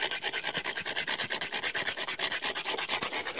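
Stone is rubbed hard against quartz, dry, without water, in quick, steady back-and-forth strokes, producing a continuous gritty rasping scrape with a rhythmic pulse, fairly bright and textured, with no talking.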